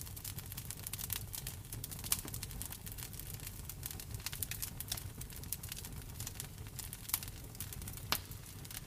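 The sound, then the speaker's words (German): A steady fire crackles in a fireplace, with irregular sharp pops and snaps scattered over a soft, continuous low rumble. It is fairly quiet, with no voices. “Du hörst in der Einschlafmeditation Feuerknistern von einem Kamin.”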